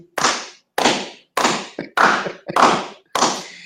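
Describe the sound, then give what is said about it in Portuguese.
Six sharp, loud hand claps in a slow, steady rhythm, applauding Felipe Neto, each a bright smack with a short ringing tail, with no voices. “Eu aplaudo você.”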